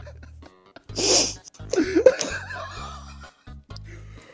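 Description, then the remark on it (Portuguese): A man laughs and breaks into a sharp, explosive cough, followed by a few wheezy, laughing gasps, fairly loud with a low hum underneath. “Voltando na história, eu tossi, ó.”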